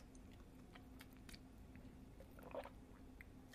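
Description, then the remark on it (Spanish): Wet mouth sounds of someone swishing drinking water around in their mouth, soft squelching and gurgling with a slightly louder slosh near the end, no talking, over a low steady hum. “Pero no hago un buche completo.”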